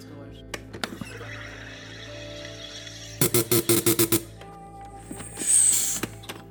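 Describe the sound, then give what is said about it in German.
A home soda maker carbonates Munich water with a quick run of about eight loud, buzzing bursts, followed by a sharp hiss as pressure is released, with some quiet clicks around it. “wir haben super Wasser hier in München und dann mache ich da Sprudel rein”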